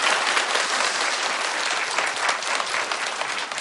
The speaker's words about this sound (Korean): 그리고 어린이집 선생님들에게는 진심으로 감사해요. 네. 박수 부탁드리겠습니다.